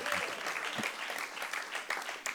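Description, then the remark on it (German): An audience at a church service claps steadily for a couple of seconds, a dense wash of many hands at moderate volume, with no one speaking over it. “Applaus für meinen Freund da hinten in der Ecke. Applaus”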